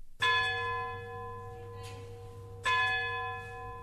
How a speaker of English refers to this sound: Just as the town clock, looming above me, out of the fog, starts to strike out midnight as it's done more or less for 200 years.